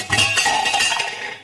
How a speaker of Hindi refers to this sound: तभी अचानक उसे बाहर से बर्तन गिरने की आवाज सुनाई दी